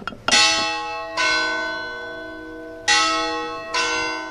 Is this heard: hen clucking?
no